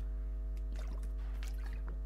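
A few soft, wet sipping and gulping sounds of a person drinking water, faint and irregular over a steady low electrical hum, with no talking.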